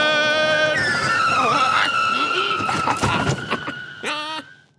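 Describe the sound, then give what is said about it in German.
A small pedal-powered plane lands on a clearing with a rough, rumbling roll and long squealing brakes, a few clattering bumps near the end before it skids to a stop. “Puh, das hat ganz schön gerumpelt und gepoltert.”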